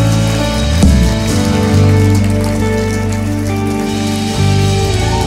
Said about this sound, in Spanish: Damos un fuerte aplauso, iglesia.